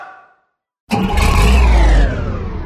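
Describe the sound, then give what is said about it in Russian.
A car engine roars to life after a brief pause, revving loudly and accelerating with heavy low rumble, its pitch climbing before easing slightly, intense with no talking. “А ну взяли в разгончик.”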